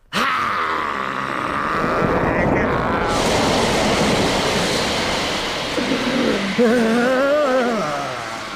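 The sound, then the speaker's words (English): A loud, steady roar of water gushing upward fills the whole stretch, with a low, wavering groan rising over it near the end. “A fountain of water between us.”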